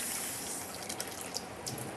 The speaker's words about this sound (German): Dann machen wir uns in den kleinen Topf, so circa halben Liter bis dreiviertel Liter Wasser rein